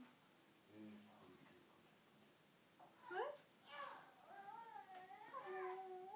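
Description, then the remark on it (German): A cat retches and heaves, letting out strained, wavering cries that rise and fall over several seconds, fairly quiet, after a brief low murmur at the start. “Ich glaube, die übergibt sich gerade.”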